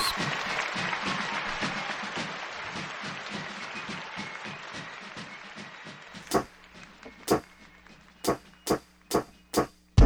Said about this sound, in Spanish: Un aplauso, no se rían, es un aplauso